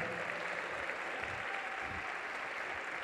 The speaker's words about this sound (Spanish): Dale un fuerte, fuerte aplauso a Jesús. Vamos, pero yo sé que puedes aplaudir más fuerte.